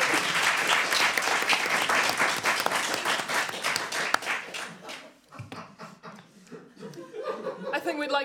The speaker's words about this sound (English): In that case, let me please hear your raucous applause for the Cthulhu kids.